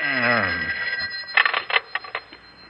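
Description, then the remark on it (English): A telephone rings at 2 a.m. with quick, trilling bell bursts, fairly loud, just after a brief murmuring voice at the start. “it's the phone again.”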